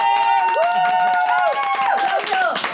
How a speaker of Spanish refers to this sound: por favor, un aplauso.